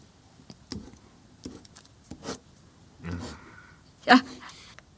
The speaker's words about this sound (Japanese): じゃあガタだけ書きますねあ白い紙をいただきましたこれに書きます